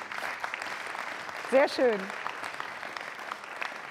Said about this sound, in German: Genau, klatschen.